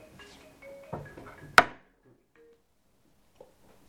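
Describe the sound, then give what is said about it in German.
An alarm clock goes off with a brief burst of electronic beeping tones, cut short by a sharp loud click, then near silence with a faint tap. “Upsi, Wecker.”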